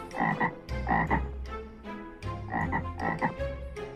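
A toad croaks over and over in throaty, rasping bursts, some coming in close pairs with brief pauses between. The calls are fairly loud, with no voices present.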